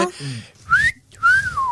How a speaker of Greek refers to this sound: Και σφυράω. Βεβαίω, το σφυρίξαμε μόλι. Ε, Σφυρίξω λίγο.